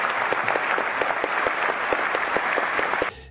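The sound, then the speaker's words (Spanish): A burst of loud, steady applause sound effect from a crowd, played on request during a quiz game, dense clapping filling the whole stretch before cutting off abruptly near the end. “pon un aplauso un aplauso grande.”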